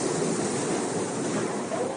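Floodwater from powerful storms pours through the vents and down the stairs into a New York City subway station in a steady, loud roar like a waterfall, a dense continuous rush of splashing water with no pauses and no voices.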